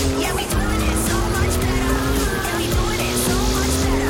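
A race car engine in a racing video game drones steadily at high revs, its pitch holding with slight shifts, loud throughout, with faint background noise and no clear speech.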